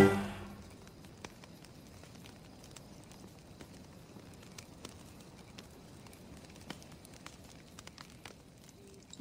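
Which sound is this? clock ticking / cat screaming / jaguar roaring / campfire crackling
campfire crackling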